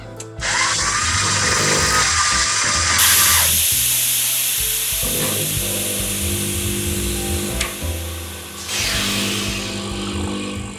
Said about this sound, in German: diese Espresso-Maschine, die mir ein gewisser Jakob Lund mir bei eBay Kleinerzeigen verkauft hat, die taugt überhaupt nichts